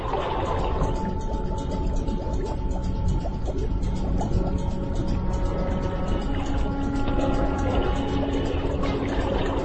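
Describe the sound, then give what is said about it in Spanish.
Methane bubbles rise from the seafloor in a steady, dense stream of gurgling and burbling, a continuous watery churn with fine popping detail that holds an even level throughout, with no voices. “su aspecto geológico es muy interesante porque son burbujas de metano que contribuyen al calentamiento global.”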